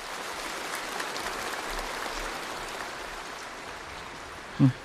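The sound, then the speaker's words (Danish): Sustained applause from a large crowd for Xi's remarks on Taiwan, a dense, steady wash of clapping that holds at an even level throughout, with a brief tonal blip right at the end. “His message met with the loudest and longest applause.”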